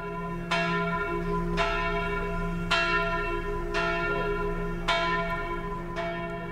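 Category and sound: signal or alarm, church bell ringing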